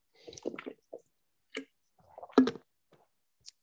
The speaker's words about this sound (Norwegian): Unnskyld, jeg må ta litt vann her, for nå ble jeg så tørr i strupen.